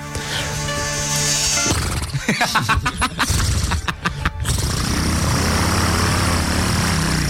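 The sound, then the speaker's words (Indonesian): A voice mimics a ship engine starting: a steady humming drone, then a burst of rapid sputtering chugs, settling into a loud, continuous rumbling roar. “Kalau nyetater kapal laut gimana Pak?”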